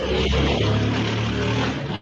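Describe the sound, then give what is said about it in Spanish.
A motorcycle engine runs steadily throughout, a loud, rough low rumble with a droning hum and slight shifts in pitch, with no voices over it. “Hay una moto ahí que está sonando”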